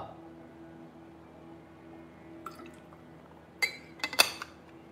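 water sloshing

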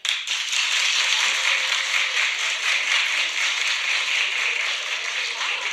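audience clapping

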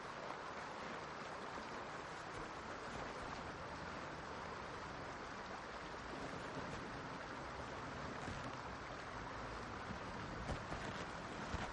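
flowing stream water

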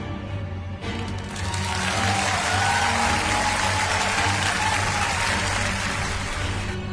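applause

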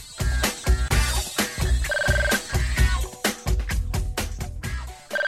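telephone ringing

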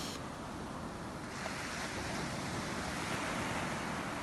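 ocean waves rushing

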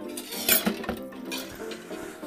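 dishes and cutlery clinking

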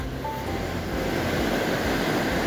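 ocean waves rolling

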